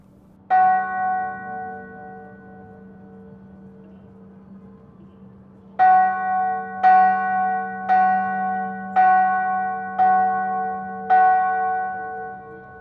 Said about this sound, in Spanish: Sonidos del pasado. Hoy presentamos las campanas de Huacaipata.